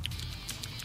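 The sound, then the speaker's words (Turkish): A voice imitates a rabbit with a few quick, soft squeaks and sniffing clicks over a low background rumble, brief, with no talking. “Bence bu tavşan sesi evet.”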